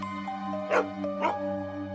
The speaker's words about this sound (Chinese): 在一些都市传说中有很多版本，比如说把一条狗牵到了一个空荡的房间， 嗯， 它狂吠不止， 对对对，就是说他看到了什么东西、